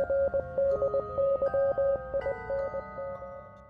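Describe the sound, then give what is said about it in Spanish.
Rapid, undecipherable Morse code beeps keyed on and off in an irregular pattern, a steady mid-pitched tone layered with fainter overlapping tones and a hiss of radio static, fading slightly toward the end. “Esto fue seguido por un código morse indescifrable y un macabro mensaje final que decía lo siguiente.”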